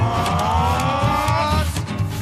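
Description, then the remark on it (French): An ambulance engine roars, revving and accelerating as it pulls away, a loud continuous drone with steady rising tones and a rumbling low end throughout. “me mets dans l'ambulance qui démarre et qui s'élance.”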